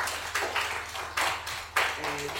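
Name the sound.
studio applause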